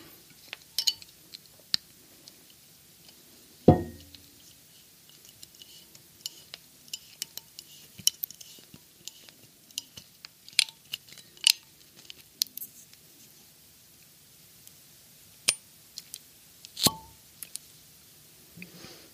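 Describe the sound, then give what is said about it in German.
A bottle of 2017 Grenache from the Ardèche, made by winemaker Jérôme Jouret in Villeneuve de Berg, being opened: scattered small clicks, scrapes and metallic ticks of foil and corkscrew, with two sharper, louder snaps standing out, and no talking over it. “Ich habe einen Grenache mitgebracht von 2017, ganz jung, aus der Ardèche, eine meiner Lieblingsregionen wo sehr viele Naturweinwinzer sitzen.”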